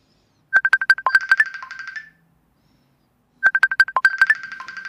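A phone ringtone announcing an incoming call plays twice, each burst a quick electronic melody of bright, rapid tonal pulses lasting about a second and a half, separated by a pause of silence.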